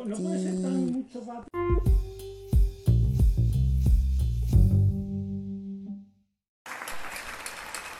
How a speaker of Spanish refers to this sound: Bueno, vamos otra vez a aplaudir.